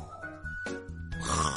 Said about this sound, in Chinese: 远远的可以听到有人打呼噜的声音，呼呼